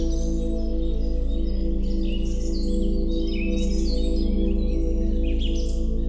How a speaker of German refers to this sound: Stell dir nun vor, du bist in einem Wald. Spür den weichen Waldboden unter deinen Füßen. Riech die würzige Waldluft. Vielleicht kannst du die Vögel zwitschern hören.